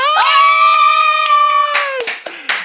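Hands clap in a steady, quick rhythm, close and fairly loud, under a long sustained high-pitched cheer or whoop that drops off near the end, followed by a few scattered claps.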